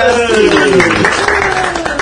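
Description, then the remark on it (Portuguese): Steady applause from a group, many hands clapping in a dense, continuous patter, with a voice speaking over it throughout. “Palmas para”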